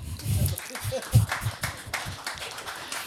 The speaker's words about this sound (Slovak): Tak ja už pozývam našich hostí sem dopredu. Môžete mi kľudne zatleskať.